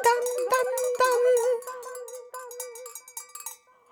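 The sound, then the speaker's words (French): Goat neck bells clank and ring in a loose, irregular jangle, several strikes overlapping with a sustained metallic tone, fading out toward the end. “il a accroché les cloches au cou de ses chèvres et il est parti dans les prés”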